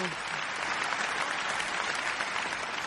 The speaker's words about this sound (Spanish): Oye, los aplausos, tú no estás los aplausos que te puso Alejandro.